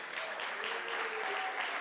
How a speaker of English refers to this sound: Shall we give a round of applause for our priest?